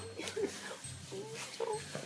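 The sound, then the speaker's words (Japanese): A pet dog named Mi-chan whimpers and lets out short, high yips, a few whiny bursts spread over a couple of seconds, fairly quiet, with a low hum underneath. “飼ってる犬のことですね”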